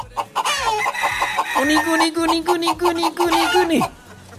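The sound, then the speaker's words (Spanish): Hens cluck in a quick, steady series of loud calls as they are fed, with one long drawn-out note stretching through the middle before the clucking stops abruptly. “Déjeme echarle de comer a mis gallinitas.”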